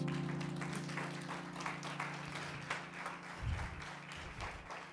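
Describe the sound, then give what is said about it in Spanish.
An audience breaks into steady applause for the Lord, a dense wash of overlapping claps sustained for several seconds at moderate loudness, with a low hum underneath and no speech. “¿Cuánto le da un aplauso al Señor por”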